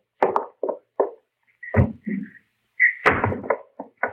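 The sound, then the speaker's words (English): A side door opens with a brief squeaky creak as Hopalong Cassidy sneaks in, surrounded by a series of uneven knocks and thuds like someone stepping in and moving about, with no voices. “And he comes sneaking in my side door.”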